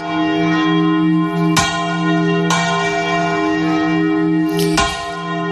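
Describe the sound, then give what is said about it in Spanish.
Large bells of the Almudena Cathedral in Madrid, rung by hand, ring loudly with no one speaking, a few irregular strikes landing over a thick, sustained metallic hum that keeps resonating between blows. “Y mañana a las 12 del mediodía sonarán las campanas de la Catedral de la Almudena para celebrar que la UNESCO ha declarado el toque manual como patrimonio inmaterial de la humanidad.”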